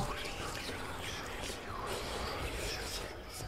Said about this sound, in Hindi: किसी के फुसफुसाने की आवाज़ उसे साफ साफ सुनाई दे रही थी